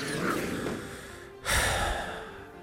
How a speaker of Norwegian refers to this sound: Jeg må bare puste tungt.